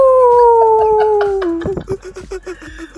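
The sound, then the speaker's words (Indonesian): A person imitates an animal howl as a radio presenter's introduction: one long, loud, gliding tone that slowly falls in pitch, then breaks into a series of short rhythmic yelps. “Ini perkenalan menggunakan bahasa binatang.”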